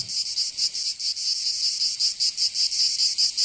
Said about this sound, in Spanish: De fondo, tras las ventanas altas, el bosque, una carretera de costa y el mar Mediterráneo. De frente, y tomándolo todo, las cigarras de verano.